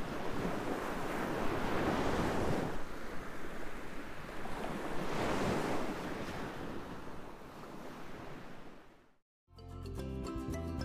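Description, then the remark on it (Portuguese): Sea waves as if heard through a large seashell picked up from beach sand and held to the ear: a steady, hissing wash of surf swelling and receding in slow surges, no voices, cut off by a brief silence before a short musical passage. “Coloque isso no seu ouvido. Consegue escutar? É o cochicho do mar.”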